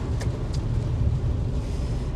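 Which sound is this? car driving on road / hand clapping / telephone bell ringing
car driving on road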